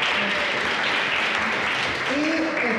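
Steady, dense applause from a crowd fills the whole stretch, a loud continuous patter of many hands clapping, with a few faint voices and cheers mixed underneath.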